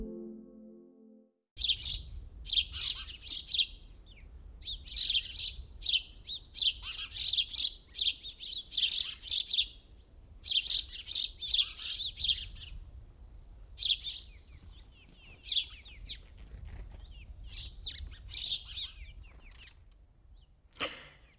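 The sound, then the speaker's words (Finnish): Sparrows twitter in quick, high chirping bursts, several calls overlapping in lively clusters with short pauses, over a low outdoor rumble on a grey December winter day in the south. “Ja tämmöistä silputusta voi kuulla tähän aikaan, eikö niin Juha?”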